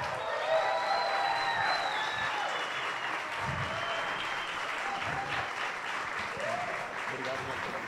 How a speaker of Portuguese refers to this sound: Mais uma salva de palmas aqui